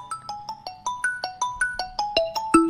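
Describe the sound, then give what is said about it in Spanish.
A phone rings with a melodic electronic ringtone, a quick run of bright chiming notes repeating about five times a second, clear with no one talking. “Nos está sonando el, teléfono, justo salió ahí, ¿eh?”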